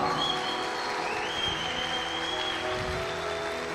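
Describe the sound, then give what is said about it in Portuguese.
A crowd applauds steadily with dense, continuous clapping at a fairly even loudness, and a thin whistle-like tone glides through the noise partway through. “Dê um forte aplauso aí, Jesus.”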